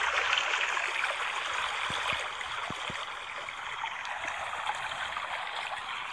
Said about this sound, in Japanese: 川のせせらぎ音をバックに初めての配信をしたいと思います。